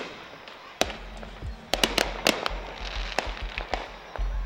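Fireworks bursting outdoors at a Christmas celebration in downtown El Paso, a rapid irregular series of sharp cracks and pops, several loud, others fainter, over a steady low rumble of crowd and background noise.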